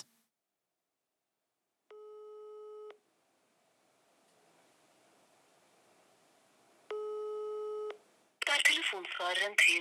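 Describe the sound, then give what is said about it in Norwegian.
A phone line rings out with two steady one-second ringback tones spaced several seconds apart, faint line noise between them, and no one picks up before a voice begins talking at the end. “Ja, eh, folk i frivilligheten de, de er ofte travle og driftige typer, så det er ikke alltid de har tid til å ta telefonen, men heldigvis så ringer de raskt opp igjen.”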